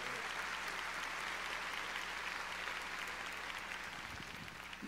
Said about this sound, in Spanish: Démosle fuerte las palmas al Señor.